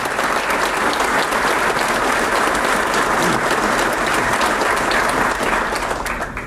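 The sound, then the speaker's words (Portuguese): A sustained round of applause from an event audience for the São Paulo Secretariat of Agriculture and Supply, dense steady clapping that stays loud and even for the whole stretch before easing slightly at the very end, with no voices heard. “Uma salva de palmas à Secretaria de Agricultura e Abastecimento de São Paulo.”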